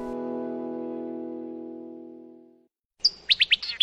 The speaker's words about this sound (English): In spring, he lay in the grass and listened to the birds sing.